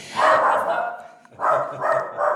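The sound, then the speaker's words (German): A dog barks: one long, drawn-out bark followed by a quick run of three shorter ones, loud and clear with no talking over them. “beim Antlitz steigt der Hund aus.”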